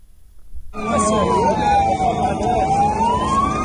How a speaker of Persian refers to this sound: شتاب آمبولانس ها برای انتقال زخمی های ناشی از حمله هوایی اسرائیل در غزه به بیمارستان روز چهارشنبه در پی حمله های هوایی اسرائیل به منطقه دیرالبلح در رفح دست کم شش تن کشته شدند.